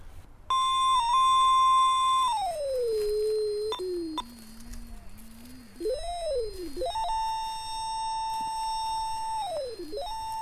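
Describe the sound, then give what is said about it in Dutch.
An electronic detector, used in a cemetery to locate a grave's coded tag, gives off a continuous, fairly loud whine that slides down in pitch, wavers low, then swoops back up and holds high, beeping louder as it nears the tag, with no one talking. “Dus naarmate je dichter bij de tag komt, gaat hij harder piepen.”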